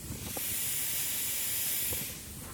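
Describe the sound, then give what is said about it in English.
A steady, breathy hiss from a steam radiator heater in a bedroom runs throughout, bright and continuous at moderate volume, with faint low room rumble beneath and no voices. “There's a characteristic hissing sound you might be able to hear in the bedroom over here,”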